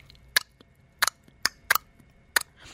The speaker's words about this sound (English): But an easy test would be to see if you can do nice, loud clicks. You know, I want a demonstration. All right, we're going to sound it. It sounds like this.